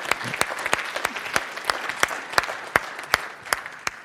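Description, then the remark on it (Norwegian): An audience claps steadily for the mission work in Bulgaria, many hands blending into a dense patter with a few sharper individual claps standing out at a fairly regular pace. No one speaks over it. “Ja, vi kan gi en klapp for det.”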